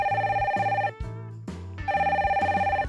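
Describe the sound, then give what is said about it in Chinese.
The green telephone of the Red Detective Agency rings in two long bursts of rapid, trilling bell tones, with a short pause between them and a steady low hum underneath. No one speaks. “红色侦探社的绿色电话再次响起。”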